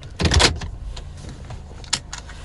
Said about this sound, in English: See, did you hear that? The click, the click. I wore my seatbelt.